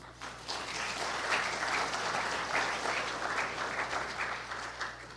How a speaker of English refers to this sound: I'm not going to be mean, but thank yous and give him a hand clap.